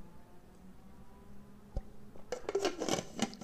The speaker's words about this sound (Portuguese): Então, deixa eu tomar um golinho d'água.